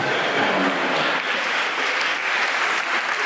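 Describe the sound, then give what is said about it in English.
Steady audience applause fills the whole stretch, a dense, even patter of many hands clapping with no pauses or voices on top. “Hoping that's an anti bombing clap.”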